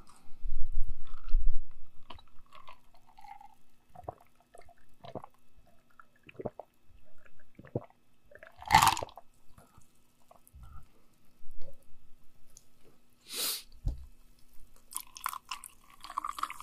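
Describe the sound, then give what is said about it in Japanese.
Wet chewing and lip-smacking sounds, recorded into a computer over a USB cable, come in irregular bursts, with occasional sharper clicks and a few low thumps, over a faint steady hum of the computer's fan; no one speaks. “結構この、くちゃくちゃ言ってる音とか入るんだよね。”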